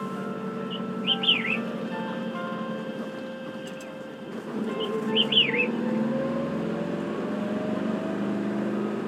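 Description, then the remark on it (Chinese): Birds perched on shrubs in the high-mountain grassland of Hehuan Mountain in spring sing two short, high warbling phrases a few seconds apart over a steady, low droning hum that continues throughout. “鸟儿跃上灌丛，赞颂这一天美好的开始。”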